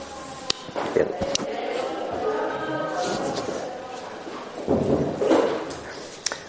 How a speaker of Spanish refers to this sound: Alguien está por otro lado de la puerta, ya que me conoce, le está cerrando cada vez cuidadosamente.